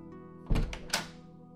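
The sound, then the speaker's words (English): A dull thunk, then half a second later a brighter knock, as a wineglass is set on a coffee table and a door is opened, over a faint room hum with no talking. “JJ then sets his wineglass on the coffee table and goes to the door.”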